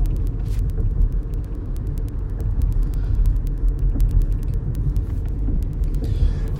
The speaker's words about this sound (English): Don't mind the uh, noise in the back. I'm driving and I'm just podcasting to stay awake because I'm tired of falling asleep at the wheel.